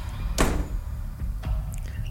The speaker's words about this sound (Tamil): கடைசி லைட்டிங் சோர்ஸில் எல்லா பொருளையும் நாங்கள் செக்லீஸ் பண்ணி ஏற்றிக்கிட்டு இருக்கும்போது வண்டியில் நாங்கள் பகலில் திறந்து பார்த்த ஒவ்வொரு கதவும் ஒன்று ஒன்றா சாத்துது